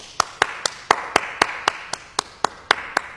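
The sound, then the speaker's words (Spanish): Steady, evenly spaced clapping from an audience: about a dozen sharp, crisp claps in a quick regular rhythm, fairly loud, with no voices over them. “¡Aplauso!”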